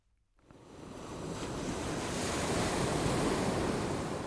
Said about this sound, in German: Jetzt hört mal hin, ob ihr die Melodien erkennt, die der Wind in die Segel pfeift.